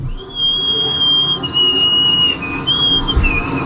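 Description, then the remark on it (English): A woman who holds the world record for nose whistling, at 44.1 decibels, whistles through her nose in a thin, high, sustained tone that holds steady, then breaks and changes notes a few times, fairly loud over a faint background hum. “it would be great if he broke her world record someday for nose whistling at 44.1 decibels”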